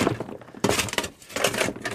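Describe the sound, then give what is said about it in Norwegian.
Pigs crunching on rock-hard old potatoes, a box given by a neighbour, hard as small stones: loud, gritty cracking and crunching bites that come in irregular bursts with brief pauses between, and no voices. “Men Men de går nå og tygger på dem og gnafser på dem.”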